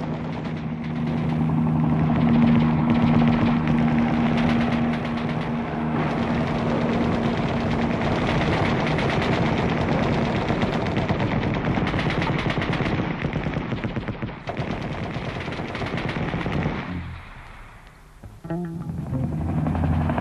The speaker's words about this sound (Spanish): y tableteo de metralla. Un ruido que no terminaba porque no empezaba, porque no era segmentable o divisible, porque estaba hecho de jirones y estaba intacto. Los fusiles y los revólveres y las ametralladoras entonaban un canto sin claudicaciones